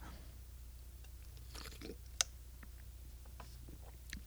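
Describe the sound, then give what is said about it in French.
Someone quietly sips coffee: a soft slurp, a sharp little click like a cup being set down, then faint mouth clicks and swallowing. No one talks. “Parlant de ça, je vais prendre euh, ma, gorgée de mon café.”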